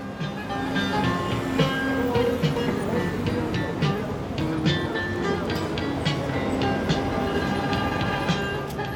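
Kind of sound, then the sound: vehicle, metro train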